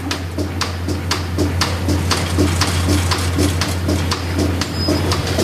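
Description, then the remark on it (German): A milking robot briefly rinses with a steady hiss of water spray after milking a cow that gave 16.3 litres, before the next cow comes in, broken by regular pulsing clicks about twice a second over a constant low mechanical hum. No one speaks. “Jetzt wird es nochmal kurz abgespült und dann kommt gleich die nächste Kuh.”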